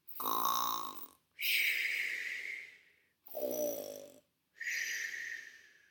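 Loud, exaggerated snoring of a rabbit sleeping under a shady tree, with no talking: four long breaths that alternate between a low, rattling snore on the inhale and a high, airy whistle on the exhale, in a slow steady rhythm.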